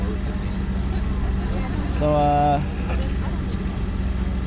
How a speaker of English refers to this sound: All right, it looks like we've got the pace car coming through. We've got uh, we've got the uh, the cool down lap happening.